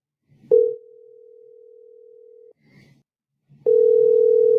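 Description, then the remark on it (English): An outgoing phone call rings out with a steady electronic ringback tone, one long two-second ring, a short pause, then a second ring that runs on unanswered, fairly loud. “She's not picking up.”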